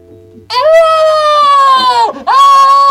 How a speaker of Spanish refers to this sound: ¡Oh! ¡Oh! Un grito.